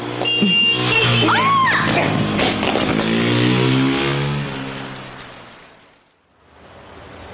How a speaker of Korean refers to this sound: 오토바이 날치기였습니다. 아내는 가방을 안 뺏기려고 그걸 붙잡고 따라가느라 질질 끌려갔다고 하더군요.